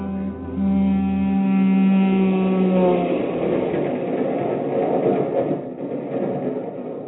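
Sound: passenger train running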